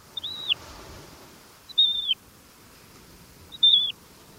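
A Magellanic plover gives three thin, high whistled calls, each a short downward-slurred note, spaced about one and a half seconds apart against a quiet, faintly breezy background.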